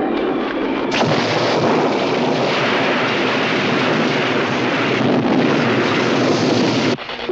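Loud, rolling thunder from a violent summer storm in the 1976 film Squirm, a sustained crackling roar that swells suddenly after a second and holds steady before cutting off abruptly near the end. No voices.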